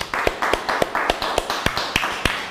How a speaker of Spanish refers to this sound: Fuerte aplauso a todas las naciones.